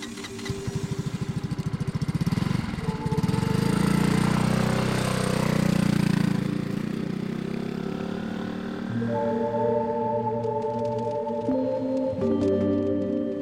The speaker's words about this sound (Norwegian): En liten mann på scooter kommer kjørende.